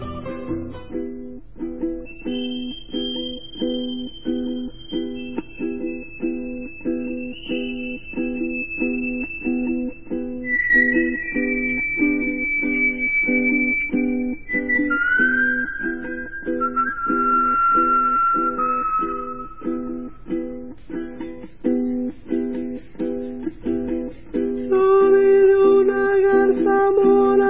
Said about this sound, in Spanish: Yo te traigo uno de Venezuela, que le cantó a la luna llena. Lo escuchamos primero y después te hablo de él.